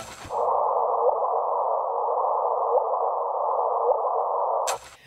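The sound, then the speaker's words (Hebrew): A sustained, hissy electronic tone holds steady in the midrange for about four and a half seconds, with faint upward chirps, then cuts off abruptly. It is the gravitational wave LIGO detected in September 2015, translated into sound frequencies; its source was a collision of two supermassive objects billions of light-years away. “מכיוון שאפשר לתרגם את הגלי כבידה לתדר של גלי קול, זה מה ששמעתם עכשיו.”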